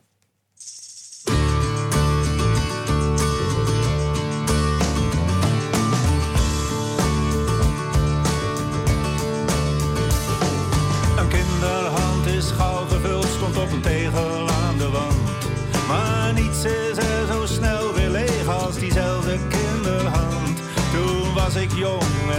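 A song starts after a brief moment of near silence and then plays steadily with full instrumentation, dense rhythmic percussion and sustained melodic tones at a constant loud level.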